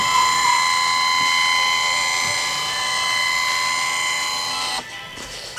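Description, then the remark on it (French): A photo scanner scanning photos runs with a steady mechanical whir and high-pitched whine, its motor humming continuously for several seconds before the sound abruptly drops near the end. No voices. “c'est le bruit quand je, scanne, quand mes photos, c'est le, bruit que ça fait.”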